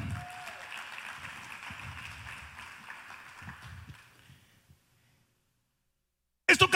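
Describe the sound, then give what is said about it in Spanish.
An audience gives loud applause to the king in a dense, steady wash of clapping that gradually thins and fades out into silence, followed by a few loud, sharp bursts at the very end. “Ahora dale un fuerte aplauso al rey.”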